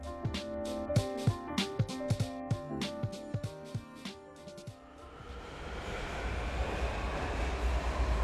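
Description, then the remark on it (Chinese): A subway train at Dongsishitiao subway station: a quick run of rhythmic clacks over ringing tones for about four seconds, then a steady, swelling rumble that fills the rest, with no voices. “让我们前往东四十条地铁站。”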